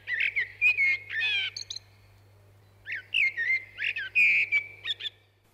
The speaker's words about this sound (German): Also das ist eine ganz typische Struktur von so einer Strophe, wie so eine Amsel singt.